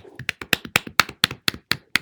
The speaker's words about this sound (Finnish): Aplodit.